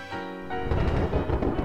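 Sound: thunder rumbling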